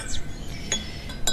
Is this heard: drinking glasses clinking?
yes